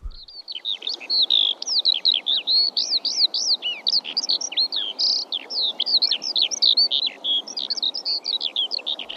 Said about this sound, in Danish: Men sanglærken, den synger den grad smukt